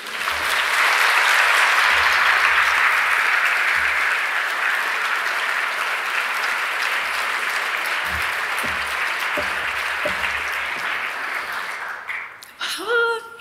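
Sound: audience applause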